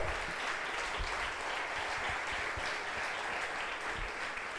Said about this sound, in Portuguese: Aplauda o Senhor aí.